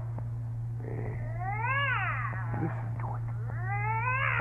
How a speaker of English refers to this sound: And I'm telling you, that cat, she got an ear violating the city ordinance. Now, if you don't make it shut up, disturbing me,